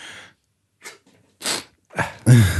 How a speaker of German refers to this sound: Gesundheit.